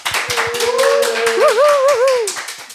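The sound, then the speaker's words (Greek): Steady, fast applause welcoming a guest, with crisp hand claps repeating throughout, while a long wavering whistle-like tone rises and dips over the clapping. No one speaks. “Γιατί σήμερα καλεσμένη είναι η Εύη Δαέλη, Ένα τεράστιο χειροκρότημα.”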